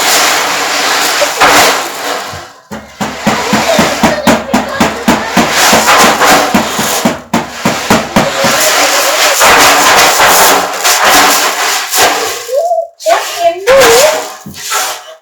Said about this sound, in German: Dann aber änderte sich schlagartig das Bild. Von den Bergen, die rund um den See waren, stürzten heftige Windstöße herab.